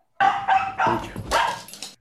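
A dog barks several times in a quick, uneven burst just before it touches the floor, the sharp yaps running close together and sounding fairly loud, with no talking.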